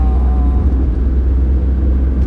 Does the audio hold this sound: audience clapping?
no